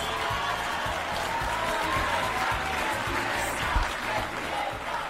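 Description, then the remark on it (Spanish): Applause from a large crowd when the name Ayuso is said, a dense steady wash of clapping with a low rhythmic pulse running underneath, holding at the same fairly loud level for about five seconds. “Es un día muy triste porque cuando digo Ayuso, oigo aplausos.”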